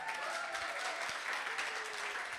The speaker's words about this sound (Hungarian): Nagyon szépen köszönöm. Egy nagyon nagy tapsot.